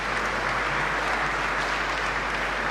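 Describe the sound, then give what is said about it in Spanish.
Sustained applause from a large crowd fills the cathedral of the diocese of Mondoñedo-Ferrol as the new bishop walks through the naves greeting the people, a dense, steady wash of clapping that holds at an even level throughout, with no voices standing out. “Lo hace mientras la catedral aplaude.”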